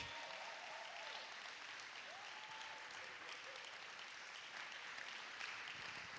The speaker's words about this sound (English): Come on, let's make some noise for our children. Come on. We want to cheer for our kids every week.